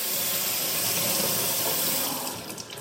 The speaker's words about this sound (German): Ich lasse mal Wasser laufen, um mal zu hören, wie das funktioniert. Ich muss die Paprika noch waschen